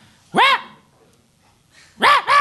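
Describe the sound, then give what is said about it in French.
A dog barks excitedly and loudly: one sharp bark, a short pause, then two quick barks in a row, with no one talking. “quand le chien est comme genre super énervé parce qu'il n'a pas sorti de la journée, puis il jappe”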